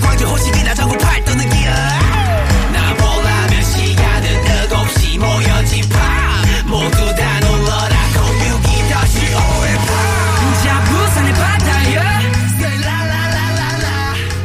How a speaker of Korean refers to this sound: 5.18 민주화 운동이 관련된 가사가 나오는 노래가 있거든요. 예. 일단 그 노래 먼저 한번 들어보시겠습니까?